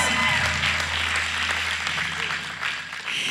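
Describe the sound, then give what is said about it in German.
A crowd applauds the worship team steadily, a dense wash of clapping that holds at an even level for a few seconds with a slight dip near the end. “Ähm, genau, gebt ihm mal einen riesen Applaus.”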